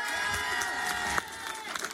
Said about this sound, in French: Applaudissements